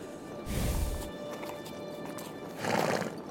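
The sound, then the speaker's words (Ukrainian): A horse whinnies in two bursts, one early and one near the end, with hooves clopping softly in between against a quiet outdoor background, as a barefoot woman walks up to it and strokes its muzzle. “Аріна підійшла до коня.”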